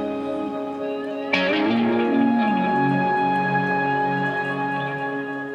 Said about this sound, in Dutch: Ja, dat is eh, niet de zee. Nee, dit is niet de zee. Dit is, een, dit is een effect op zijn gitaar.